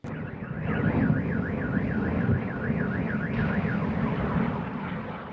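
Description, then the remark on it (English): An air raid siren wails over Kyiv, Ukraine, overnight during a massive drone attack, in quick, regular rising and falling swoops, a steady high-pitched tone over a constant low rumble, with no voices. “in Ukraine, fire and sirens consumed the capital's sky overnight.”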